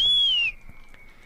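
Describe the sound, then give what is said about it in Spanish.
A shrill whistle blast from children blowing whistles in the street during the Fallas festival, a steady high tone that dips slightly in pitch, then drops to a quieter sustained whistle for the rest of the moment. “El sonido que es de fondo son niños en la calle pitando con pitos.”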